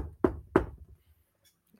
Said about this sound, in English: So I'm going to knock on the door.